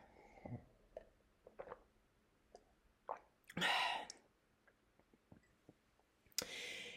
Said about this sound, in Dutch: Even een slokje water.